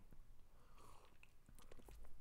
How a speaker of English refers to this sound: And let me take a sip of my coffee here. Hmm.